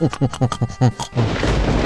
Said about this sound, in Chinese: 啊！糟了，金斗号被闪电击中了。